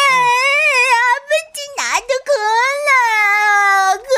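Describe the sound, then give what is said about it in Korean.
A young grandchild cries loudly: long, high-pitched wailing sobs that rise and fall, with a brief catch of breath in the middle before the crying carries on. “다시는 애가 우는 상황을 만들지 않겠다는 의지가 보였었어요.”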